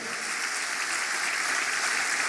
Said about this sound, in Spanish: Alguien celebra que Cristo pronto retorna por nosotros. Vamos, dele fuerte ese aplauso al Señor.